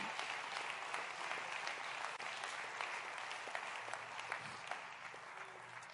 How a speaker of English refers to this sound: Somebody clap your hands to the Lord and give him praise.